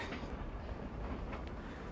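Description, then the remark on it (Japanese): A loud Tbilisi metro train, on a line dug in the Soviet era and still in use, running deep underground: a dense, steady roar with heavy low rumble and a wash of hissing, rattling noise that holds constant throughout, with no voices. “結局ここの旧ソ連のが掘ったメトロのあれを今も扱っててかなり爆音でですね”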